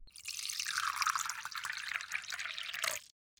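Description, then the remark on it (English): Tea streams steadily into a cup for about three seconds, a continuous splashing pour that stops abruptly, with no voices. “So let's jump right into things while you pour yourself a cup of tea and get comfortable.”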